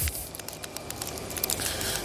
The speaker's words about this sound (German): So, Knister, Knisterkarton genommen.